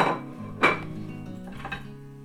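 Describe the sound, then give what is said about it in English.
A bigger metal frying pan clanks down onto the hob with a sharp ringing thud, followed by a softer second knock and lingering metallic resonance, fairly loud with no talking. “We're going for a bigger pan.”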